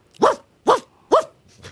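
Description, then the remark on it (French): A person imitates a dog barking: three loud, evenly spaced woofs, followed by the start of a softer fourth bark. “Bon, c'est bon, c'est qu'un chien.”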